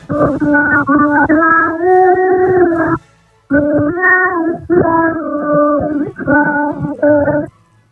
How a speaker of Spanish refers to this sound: ¿Cuál fue? ya os lo he dicho casi, una nana, una nana en francés que se ha conseguido restaurar, o sea que el sonido también tiene restauración, como en las Reales Academias de Bellas Artes. Vamos a escucharlo.